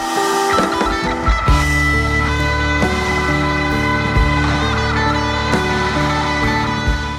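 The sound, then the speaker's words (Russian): A musical Tesla coil plays a melody of loud, harsh electric buzzing tones, the notes shifting in pitch over a steady sustained drone, with no voices present. “Сразу же отозвалось очень много людей, которым надо вот эту вот Тесла-катушку.”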